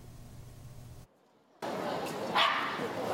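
A rescue dog barks once or twice amid noisy outdoor crowd sound at a working-dog charity event in Da'an Forest Park, as it finds a girl trapped inside a box, following a low hum and a brief moment of near silence.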